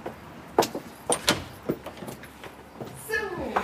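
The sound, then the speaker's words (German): The dark green front door of a restored villa opens with a handful of sharp clunks and rattling handle sounds, while muffled voices murmur faintly in the background. “Dunkelgrüne Fenster, eine dunkelgrüne Tür und ich vermute, hier geht es auch gleich rein.”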